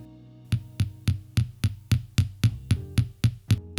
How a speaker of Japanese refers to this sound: うん、形を作るのはさすがにここで作るのが難しい難しいからあのこの模様を入れている叩く模様を入れているところをちょっと叩いてみよう、はい、これ模様っていうのがね土目っていうんですか、はい、なんか鱗みたいなね、はい、そういう模様ですよね、はい、これをだから一個一個叩いてつけていくっていうことですか